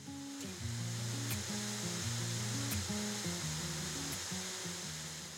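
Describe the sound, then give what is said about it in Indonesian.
A steady, hissing rush of splashing water from the first tier of the seven-tiered Sarasah Murai waterfall, set among shady trees, fills the whole clip at an even loudness, with a low melodic tune of stepping tones running underneath. “Berjalan sekitar 300 meter saja, saya sudah bisa melihat percikan air berlatar pepohonan rindang.”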